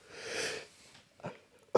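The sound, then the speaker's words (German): A long, wheezy intake of breath builds toward a sneeze, then two short, muffled bursts follow as the sneeze is stifled and never fully breaks; fairly quiet. “Ah, Gesundheit fast.”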